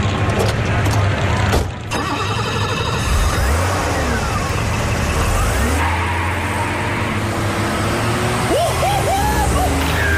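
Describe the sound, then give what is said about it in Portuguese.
A car engine revs and accelerates with a steady, loud roar, its pitch climbing and shifting through gears, broken by a brief sharp thump early on, as a car is driven past a speed camera at about 200 km/h in a reenactment of Maurice Gatsonides' speed tests. “Ora bem, a câmera já está a postos. Vou para a viatura.”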